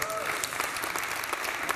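Steady audience applause, a dense patter of many hands clapping at once with sharp individual claps poking through, sustained at an even loudness throughout.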